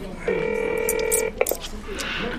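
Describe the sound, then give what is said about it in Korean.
A single steady ringback tone sounds through a phone line for about a second on a detective's outgoing call, then cuts off into a soft click and faint background noise. “전화해볼게요.”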